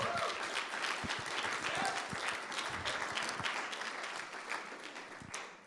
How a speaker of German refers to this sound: Gebt unseren Dreamteamlern doch mal einen Applaus, die sich immer so einbringen.